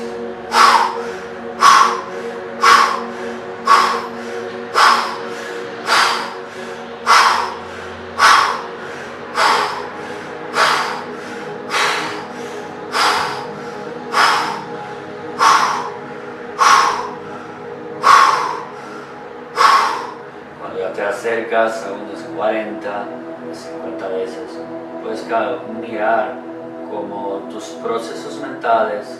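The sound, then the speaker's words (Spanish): Deep, forceful hyperventilation breathing, done 40 to 50 times as an exercise: loud, rapid breaths in a steady rhythm for about twenty seconds, then quicker, softer, uneven breaths, with a sustained tonal drone underneath. “Así que podríamos eh, hacer una hiperventilación fuerte, y profunda por 40 y 50 veces y después sostención y empuje hacia dedo pulgar.”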